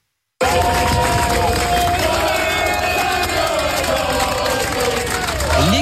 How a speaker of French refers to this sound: explosion de joie du clan d'Aston Martin.